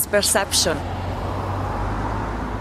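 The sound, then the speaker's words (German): A steady, loud roar of busy traffic on a large main road in a capital city, measured at 64 decibels on a phone app, fills the scene. It is a continuous low rumble of passing vehicles, with a brief voice heard at the very start. “Auf der großen Straße ist es trubelig, der Verkehr braust.”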